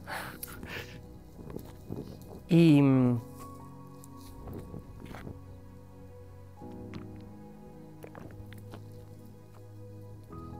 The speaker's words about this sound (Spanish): Vamos a, darle otro traguito.